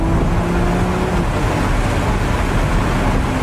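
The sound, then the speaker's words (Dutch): A car with 830 horsepower, including an electric motor, rushes along at speeds above 200, its steady engine drone buried under loud, continuous wind roar with a low tonal hum. No voices. “En je hoort het misschien ook aan het windgeruis.”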